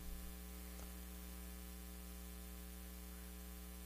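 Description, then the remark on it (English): A steady electrical hum from electric lights during a quiet meditation sitting with the air conditioners off, with a low buzzing drone and faint static hiss running unbroken throughout, fairly quiet, with no voices. “so you can still hear the electric lights, but I don't think there's any place in uh, in the world that's totally silent anymore.”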